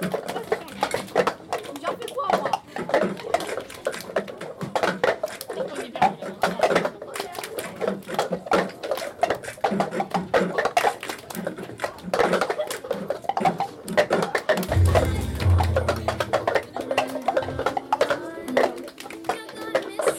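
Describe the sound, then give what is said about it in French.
Busy, dense percussive tapping of cups on tables by middle school students doing the cup song, many sharp clicks and knocks in a fast repeating rhythm, with children's voices chattering throughout and a low thud near the end. “tapent frénétiquement des gobelets sur des tables”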